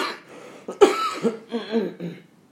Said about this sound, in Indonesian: diulang ah habis ada gangguan batuk